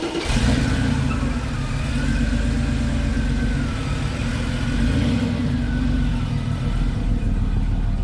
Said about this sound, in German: Ich fahre jetzt erstmal aus der Garage raus und dann kannst du einsteigen.